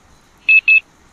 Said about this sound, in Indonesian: Ternyata itu suara alarm jam dan aku pun terbangun dari tidurku.